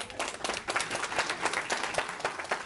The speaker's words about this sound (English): Give her a round of applause.